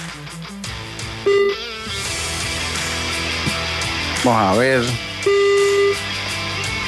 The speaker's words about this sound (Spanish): Vamos a escuchar el teléfono sonar.